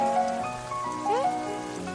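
Steady rain patters continuously throughout, a dense hiss of drops, with faint sustained tones and a brief gliding pitch layered over it.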